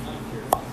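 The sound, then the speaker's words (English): A single short, sharp pop of a saxophone reed as suction is released from the mouthpiece after the air is sucked out during a mouthpiece check, distinct against a quiet, faintly noisy background. “That's the sound of the suction being released from my mouthpiece.”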